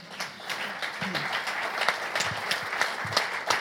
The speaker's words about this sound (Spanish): Y, por cierto, ¿le damos un aplauso? ¿No, no vais a aplaudir? Nada?